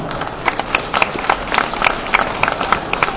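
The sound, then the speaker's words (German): A crowd at an award ceremony claps for an absent prize winner in dense, continuous applause, a bright crackle of many hands with small swells throughout and no voices on top. “Wir hatten leider nicht das Geld, einen Applaus, genau.”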